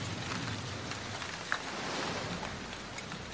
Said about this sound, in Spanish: nos cayó lluvia, pero no era una lluvia como, como súper fuerte, entonces no estábamos preocupados.